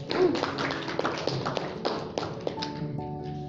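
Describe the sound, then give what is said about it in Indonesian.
A crowd claps steadily for several seconds, applauding for God, a dense patter of many hands at an even loudness, while sustained keyboard or organ notes come in toward the end. “tepuk tangan buat Tuhan dong”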